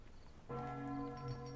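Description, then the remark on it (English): A single deep bell strikes and rings out with a sustained, humming resonance that lingers steadily, fairly loud against a quiet background with no voices. “Okay, at least stop that bell.”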